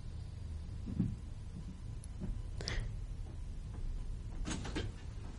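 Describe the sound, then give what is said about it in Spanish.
A door that was shut but not locked is handled and shut, with a few short clacks and knocks around the latch and a firmer thud near the end, over a low background rumble with no talking. “Ah, cerrada. No estaba con llave. Pero estaba cerrada.”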